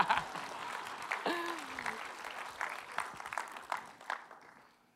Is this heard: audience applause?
yes